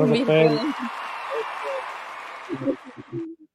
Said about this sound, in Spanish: Sí, un aplauso para todos y para ti también.